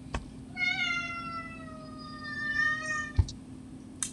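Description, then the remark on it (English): A male domestic cat lets out one long, drawn-out meow lasting a few seconds, clear, with a few soft clicks and a low background hum around it. “we're going to have a star guest, and that would be my cat named Silver”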